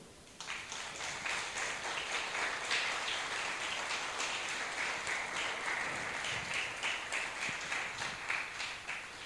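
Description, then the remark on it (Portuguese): A crowd applauds the Lord, clapping steadily for several seconds, a dense, even wash of many hands starting abruptly and holding at a moderate level with no voices. “Aplauda o Senhor.”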